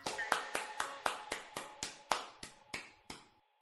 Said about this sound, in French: On les applaudit.